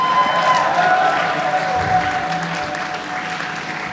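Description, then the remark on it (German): A live audience applauds steadily, with scattered cheers and whistles rising over a dense wash of clapping that holds at a fairly loud level throughout. “Hier macht Lärm”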